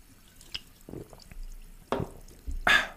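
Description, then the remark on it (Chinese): Sparkling water being poured for a toast: a few short liquid splashes and drips, then a brighter, louder fizzing burst near the end, with no talking. “但是我们当然还在今天开始之前呢，还是要用气泡水来个大家来干几杯哦，干几杯哦。”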